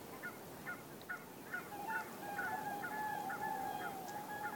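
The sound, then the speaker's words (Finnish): A series of swans' bugling, honking calls as the swans land at night in calm, windless weather, repeating steadily, the calls overlapping and growing more continuous toward the end, over a constant low outdoor rush of background noise. “Ja nyt joutsenet laskeutuu.”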